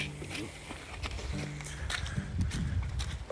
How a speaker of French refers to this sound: parce qu'il court vraiment dans la gadoue.